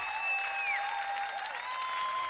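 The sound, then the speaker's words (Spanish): Steady applause from a large crowd, a dense continuous patter of clapping with sharp whistles ringing out over it, fairly loud throughout. “Pero lo peor que encima la gente lo aplaude”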